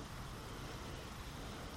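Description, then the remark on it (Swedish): A car comes to a stop at midnight near Europe's largest port, its low engine rumble steady and fairly quiet over a wash of road noise, with no voices. “Nyss var det en bil som verkade stanna och kolla in mig.”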